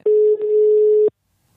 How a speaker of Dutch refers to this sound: Zo echt klinkt dit, hè? Mm Telefoon.